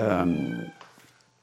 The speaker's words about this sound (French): et donc là, c'est mon chat que vous entendez. Euh. Si, vous entendez un chat, c'est normal. Hein. C'est pas dans votre tête, c'est bien dans l'émission.